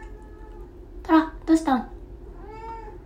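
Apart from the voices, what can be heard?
cat meowing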